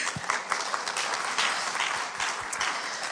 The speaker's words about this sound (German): An dieser Stelle ein kleiner Applaus für dich.